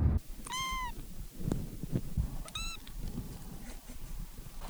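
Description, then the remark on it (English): Two short, high meows from a cat, the first about half a second long and the second briefer, over a low, rumbling outdoor background with no talking. “And we recorded some kitties.”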